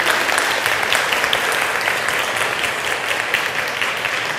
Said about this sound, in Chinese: 我们给他热烈的掌声，给他鼓励。